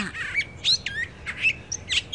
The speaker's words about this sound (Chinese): 它只是静静的听，内心不断的发出赞叹：“哦，这些鸟儿的声音太美了！”